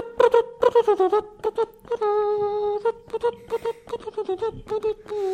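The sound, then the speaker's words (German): Brass band music played by a church tower clock in Bavaria, as it does every quarter hour, with a steady sustained tone under repeated rhythmic tonal notes in a marching cadence, moderately loud and without talking. “hier in, in Bayern ist, das ist die Kirchturmuhr, hört sich so an, wenn hier alle Viertelstunde gibt es hier einmal Blasmusik.”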